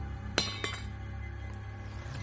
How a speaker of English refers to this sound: What was that? It sounded like a tool dropping.